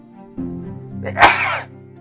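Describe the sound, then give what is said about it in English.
A single sharp sneeze bursts out, preceded by a quick inhale, with a low steady hum underneath and no talking. “Um, uh, just little sneeze there.”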